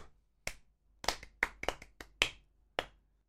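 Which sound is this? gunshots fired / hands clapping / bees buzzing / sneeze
hands clapping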